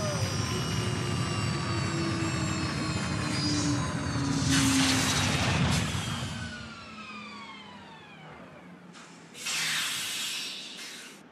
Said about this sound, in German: Ei, ei, der fliegende Zirkuswagen landet! Festhalten, Leute!